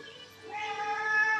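A cat lets out one long, drawn-out meow that swells in the second half, moderately loud, with no voices over it.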